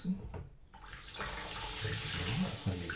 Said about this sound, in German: So, dann hört ihr mal ein bisschen Wasser laufen auch. Ja. Einweichen mit Heißwasser.